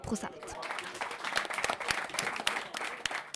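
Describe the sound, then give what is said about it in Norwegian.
A crowd claps steadily in a dense, continuous burst of applause with some mild cheering mixed in, moderately loud and sustained for a few seconds, cheering a small rise in vote share in election results. “Likevel var det en mild eh, jubel over eh, den lille oppgangen.”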